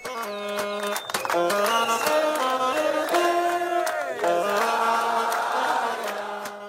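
A soldier plays a saxophone while protesters dance: a continuous, wavering melody with sustained notes and sliding pitch changes, loud over a steady background of crowd noise.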